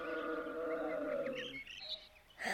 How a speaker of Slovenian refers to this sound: Nekaj sem slišal. Zdi se mi, da je nekdo zaren. Zverina je zarenčala, tam je, zagrmal je se nekaj premika.